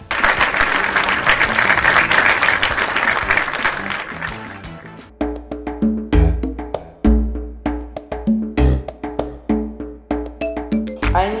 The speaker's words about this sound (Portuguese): Para toda essa galera, o nosso muito obrigada e vamos fazer aquele lindo, lindo, lindo aplauso coletivo.